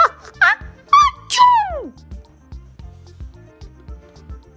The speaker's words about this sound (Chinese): 糟糕了！这个喷嚏不只是喷嚏，还喷出了火，身上的衣服也裂成了大大小小上百片的碎片。